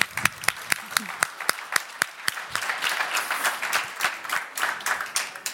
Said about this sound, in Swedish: Jag tycker att de också är värda en ny applåd.